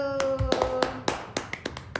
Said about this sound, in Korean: 해시 티저 이미지와 트랙 리스트가 공개되었습니다. 와. 박수.